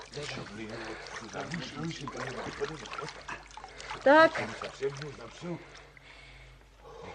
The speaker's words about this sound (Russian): Вероятно, разлилась река и затопила равнину.